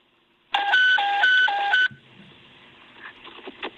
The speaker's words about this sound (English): Stand by for a tone out.